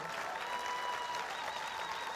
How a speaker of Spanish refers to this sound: Ah, eso se merece un mejor aplauso en esta mañana.